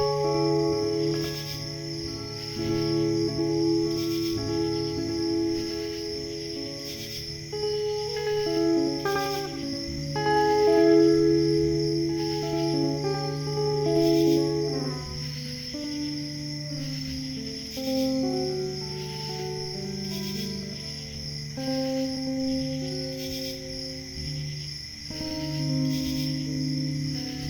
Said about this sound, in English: You know, I was thinking crickets are often associated with the sound of bombing, but I love these guys.